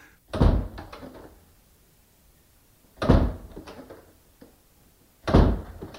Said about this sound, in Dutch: We hebben trouwens ook een opname van de echte deur, we kunnen dus vergelijken.